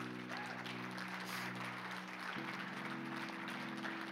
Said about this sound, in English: God bless you. Let's give the Lord Jesus Christ a hand clap. Amen.